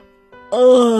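A single drawn-out yawn voiced by a person for a hedgehog, starting as a quiet low hum and swelling into a loud, open, moaning exhale that holds steady to the end.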